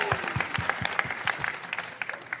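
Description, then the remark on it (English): A live audience at the Anesthesiology 2022 conference in New Orleans, Louisiana claps steadily, a dense patter of many hands at moderate volume with no voices rising above it. “Let's hear it from our audience, our live audience.”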